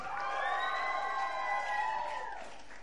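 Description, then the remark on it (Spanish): A large church audience shouts loudly for joy during a service, many voices merging into one sustained, high-pitched cheer that holds steady for a few seconds before tapering off. “Si van a dar un, grito que sea fuerte, dale.”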